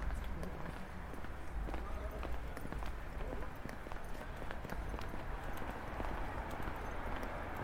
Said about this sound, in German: Das ist jetzt Eiskratzen.